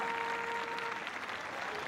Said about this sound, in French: La foule acclame le roi. Vive le roi